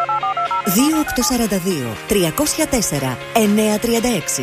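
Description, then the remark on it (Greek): A quick run of touch-tone beeps as the phone number of Chaniotakis Supermarket is dialed, clear at the start, followed by a voice talking while faint tones linger underneath. “Υπάρχει ένα τηλέφωνο που όταν το καλείτε βγαίνετε πάντα κερδισμένοι.”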